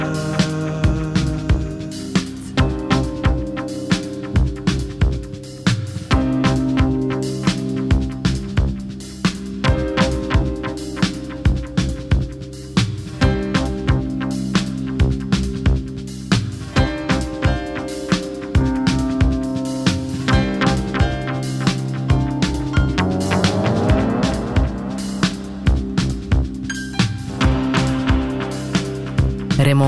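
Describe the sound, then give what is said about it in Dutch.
A calm music track plays steadily throughout, with sustained harmonic tones over a regular, gentle beat at an even, moderate loudness and no voices. “Hier klinkt het nog allemaal rustig in dit nummer”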